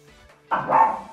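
A dog barks excitedly, a short burst of loud, bright yaps rising suddenly after a quiet moment, with no talking over it.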